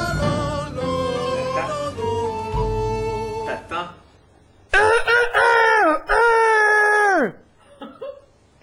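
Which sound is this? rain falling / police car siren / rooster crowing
rooster crowing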